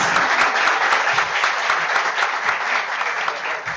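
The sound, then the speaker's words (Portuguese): Steady, dense applause from an audience welcoming the president of OAB Caruaru as he is invited to join the panel, many hands clapping at once in a continuous bright patter that holds at an even loudness for several seconds. “Uma salva de palmas.”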